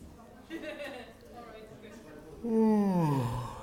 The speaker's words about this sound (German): Ich muss schon mal gähnen. Ich bin aber, es ist glaube ich eher die Mittagsmüdigkeit.